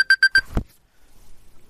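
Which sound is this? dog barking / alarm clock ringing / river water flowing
alarm clock ringing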